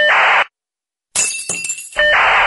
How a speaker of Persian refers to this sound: خواهش میکنم یه لیوان بشکن